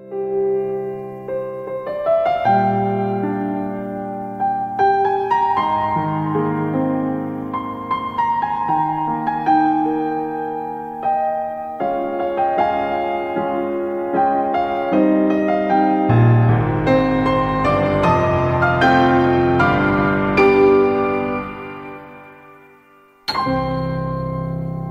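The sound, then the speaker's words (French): The classic Zelda theme, as reused in the game Breath of the Wild, plays as a steady, melodic piece with chiming, bell-like tones that build in fullness, fade briefly, then end with a sudden bright chord. No one speaks. “Donc euh, bon, c'était un thème hein, hyper court parce que c'est le thème classique de Zelda repris dans Breath of the Wild.”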